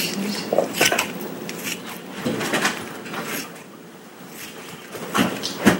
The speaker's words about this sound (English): Now I'm chopping the strips of rutabaga into bite-sized pieces.